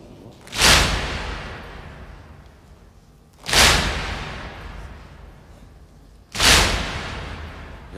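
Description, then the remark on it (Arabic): Three heavy, resonant thumps of mourners beating their chests land at a slow, steady pace roughly three seconds apart, each ringing out and fading before the next, with no voices. “وانت ساكت فدوى قلبك سمعني دق صدرك فدوى صدرك”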